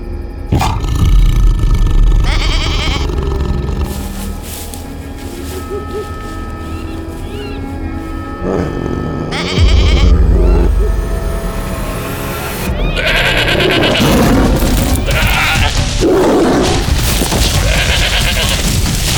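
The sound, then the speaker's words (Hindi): A goat bleats in several strained, distressed cries as a lion seizes it by the neck, loud, tangled with deep roaring and heavy rumbling booms; no one speaks. “वो निराश होकर उठने ही वाला था कि बिजली की तेजी से एक शेर ने बकरी की गर्दन को जकड़ लिया”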